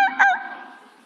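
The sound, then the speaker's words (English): A female dog gives a sharp, excited bark that trails off into a drawn-out, wavering howl, fairly loud, fading away over about a second with no one talking. “She's barking and singing.”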